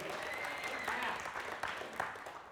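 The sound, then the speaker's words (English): An audience at a worship gathering claps steadily for the worship team, a dense wash of many hands with a few sharper claps standing out, moderately loud and sustained for a couple of seconds without any talking. “Come on, let's give them a great round of applause.”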